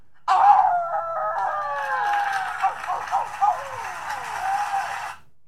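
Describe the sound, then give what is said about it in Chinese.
On stage accepting the best picture award, a man dedicates it to 'our wolf' and imitates a wolf howl: one long, loud, sustained high-pitched cry lasting about five seconds, wavering and sliding downward. A crowd's cheering noise swells underneath it before everything cuts off. “他突然就真的是仰天长啸，然后就跟就跟野狼的嚎叫是一模一样的，就是非常非常震撼。”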